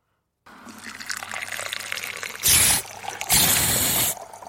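Milk being steamed to froth it for a latte: a steady bubbling, gurgling hiss that swells into two loud, harsh blasts of steam, the second longer, then cuts off. No one speaks.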